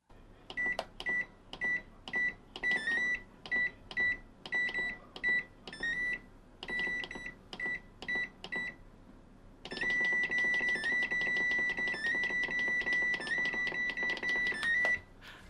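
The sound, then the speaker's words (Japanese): A household microwave oven's heating-mode switch buttons beep as it is switched between microwave, oven and simmer modes, in quick, rhythmic bursts of short tones, some sounding chord-like, then a long continuous beep-laden stretch, clear with no talking. “我が家の電子レンジの加熱モード切り替えボタン、えー、500 w から700 w などレンジモドレンジモード内での切り替え時は単純ですが、えー、レンジモードオーブンモード煮込みモード再び煮込みモードレンジモードなどに戻る時が和音みたいになっていてメリハリがある”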